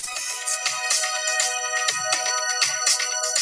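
A bright electronic phone alarm melody rings steadily and loudly, its repeating synthetic chimes filling the whole stretch with no voices over it.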